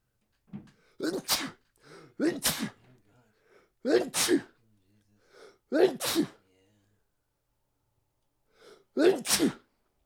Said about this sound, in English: Five. Jesus Christ. Mm. I sneezed five times in a row. Yeah, I did five times in a row.